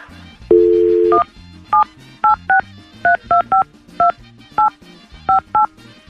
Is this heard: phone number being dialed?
yes